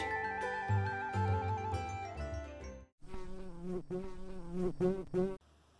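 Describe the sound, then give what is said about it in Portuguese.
A housefly buzzes in a steady, wavering drone that rises and dips in pitch, with a brief pause midway before the buzzing resumes; no one speaks. “Certo dia, uma mosca caiu num copo de leite.”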